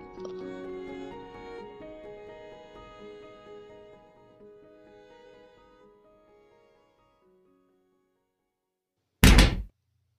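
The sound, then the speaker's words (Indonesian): Soft sustained music fades away into silence, then a bedroom door is shut once by a mother with a single loud thud. “Setelah itu aku dengar pintuku ditutup.”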